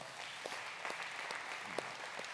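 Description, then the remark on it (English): A group of people applauding the parents, a steady wash of many overlapping hand claps with a few sharper individual claps standing out, fairly soft. “Um, so I'll just give you guys a round of applause right now.”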